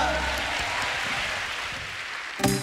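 A crowd claps steadily in applause to God, a dense, even wash of applause that holds at a constant level, then a short louder burst near the end.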